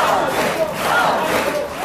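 A large crowd outside parliament cheers and shouts in a loud, continuous roar, many voices blending together with no individual words standing out, holding steady for the whole moment.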